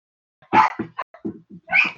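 A dog whines and grumbles in a quick series of short, complaining vocalizations, a couple of louder whiny yelps among softer murmurs, close and clear with no one talking.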